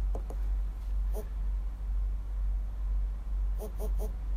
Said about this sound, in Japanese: こう、ブブブっと。こいつ自体は鳴らないので、あ、今警告が出ますね。え頻繁に探すとバッテリーの減りが早くなるよって。まあ、バイブがね、ブルブルってなってるので。